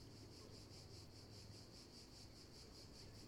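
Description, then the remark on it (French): A few cicadas chirp in a steady, rapidly pulsing drone, fairly faint, over a low background rumble with no voices, beside a hilltop road lined with trees in the south of France, in mild weather during a dry August. “Le temps est doux et quelques cigales chantent.”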